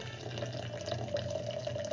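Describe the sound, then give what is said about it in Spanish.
A steady stream of water pours continuously over coffee grounds, an even trickling and splashing with no speech over it, topping up to a recipe of 16 grams of coffee to 250 of water. “Ahí terminamos de completar con la cantidad de agua”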